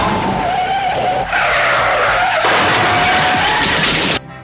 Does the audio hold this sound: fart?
no